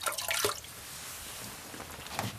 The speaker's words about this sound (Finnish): Sitten on vielä viimeinen prosessi ennen, ennen kuin päästään löylyihin, 200 vuotta vanhoihin löylyihin nautiskelemaan, niin tota, häkää löylyjen heitto. Tästä vettä kuuppaa vaan ja